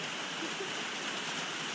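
Steady, heavy rain from a brutal storm at the top of a mountain, heard from inside a shelter, hisses without a break, a dense wash of noise with faint irregular patter underneath. No voices are present.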